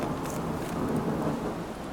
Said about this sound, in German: Theaterdonner. Es regnet. Es geht los.